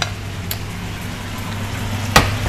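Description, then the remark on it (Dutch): Steady sizzling of food frying in a pan, with a low hum underneath and a couple of sharp scraping clicks as a utensil stirs and knocks against the pan. “Gewoon even roeren en dat is goed.”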